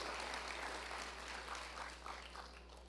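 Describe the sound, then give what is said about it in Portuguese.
An audience claps steadily in thanks to God, a dense wash of many hands beating together that holds at an even level throughout, with no voices standing out above it. “Agradeça a Ele nesse momento enquanto você o aplaude.”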